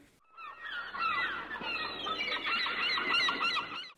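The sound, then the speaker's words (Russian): A dense chorus of seagulls calling over one another, many overlapping cries forming a steady, fairly faint clamor heard from a distance, with no voices. “Или все же вы заходите издалека и описываете ему красивые картинки будущего, как вы нежитесь под солнечными лучами, шум прибоя щекочет ушки, и там где-то вдалеке волоебят чайки.”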